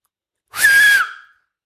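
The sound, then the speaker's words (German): A person who learned to whistle the day before whistles next to the microphone: a single breathy whistle, one steady fairly high note held for under a second with a lot of rushing air around it, trailing off at the end. “Ich habe gestern gelernt zu pfeifen. Wollt ihr hören, wie ich Krass. pfeifen kann?”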